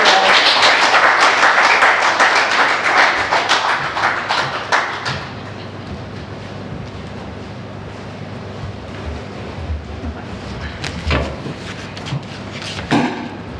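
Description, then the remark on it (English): A crowd claps loudly for about five seconds, a dense wash of hand claps that quickly fades to quiet with a few scattered taps and shuffles, as the audience welcomes a woman coming up to share God's word. “So why don't we all just give a big round of applause and encouragement which she comes up to share God's word.”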